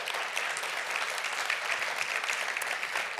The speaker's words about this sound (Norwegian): Fortjener nesten en applaus til, spør du meg. Ja.